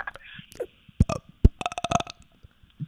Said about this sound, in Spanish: …, en vivo, gracias. Gracias, ….